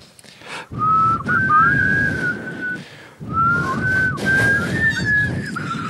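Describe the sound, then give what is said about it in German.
Two phrases of a whistled melody, a couple of voices whistling together in gliding tones around the same pitch, loud, with a short pause between the phrases. “kannst du das mal kurz es, pfeifen? kommt noch mal richtig wir pfeifen mal kurz zusammen”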